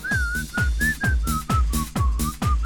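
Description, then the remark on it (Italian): On a Radio Company broadcast, someone whistles a bouncy dance-pop tune over a loud backing track with a steady, thumping four-on-the-floor kick drum. Nobody speaks. “Prova, prova a fischiarla Vai Aspetta che mi viene da ridere Ok Sulla base”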